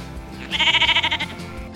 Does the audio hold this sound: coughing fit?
no